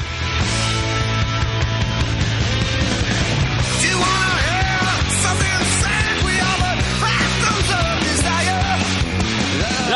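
A loud rock song plays steadily throughout, with dense band instrumentation, a driving low end and a sung vocal line weaving over the top.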